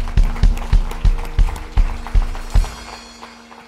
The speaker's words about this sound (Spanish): Aplausos aplauso al Señor.